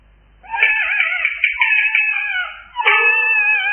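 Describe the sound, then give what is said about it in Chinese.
A baby crying in a back garden: two long, loud, high-pitched wails, the first drawn out and wavering, the second starting sharply after a brief pause, with no voices around them. “哎呀呀，果真是婴儿啼哭。”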